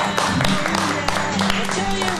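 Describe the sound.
An audience applauds, a steady dense wash of many hands clapping at even loudness throughout, with faint voices murmuring underneath.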